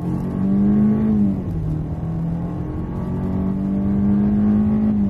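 A Kia's 114 kW 2-litre petrol engine with a 6-speed automatic gearbox accelerates steadily, its tone rising and holding, then dipping briefly as a gear shifts before climbing again. Continuous and fairly loud, with no talking.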